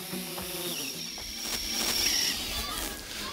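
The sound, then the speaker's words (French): A camera drone's propellers hum with a steady, high-pitched insect-like buzz that holds fairly loud through the whole stretch, with indistinct voices murmuring faintly in the background. The drone is used to film fish parks on a lake. “Qu'est-ce que tu faisais avec ce drone alors, euh, nous utilisons le drone pour filmer les parcs à poissons qui devenaient un peu trop nombreux”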